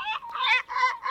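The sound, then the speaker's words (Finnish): A great black-backed gull calls several times in quick succession, harsh nasal cries that run together with only brief gaps, loud with no one talking. “Mut siis lokki kuulostaa tältä. Tämä on siis merilokki.”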